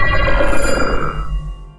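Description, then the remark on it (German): An old-fashioned telephone bell rings loudly and continuously with a bright metallic jangle, then fades out toward the end. No voices are heard. “haben wir auch noch ein altes Telefon, was von großer Bedeutung ist.”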